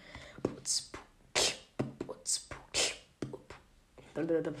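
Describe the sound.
A quick vocal beatbox pattern: sharp breathy hiss-like snares and clicks alternating with low thumping kicks in a rapid, fairly steady rhythm, performed alone.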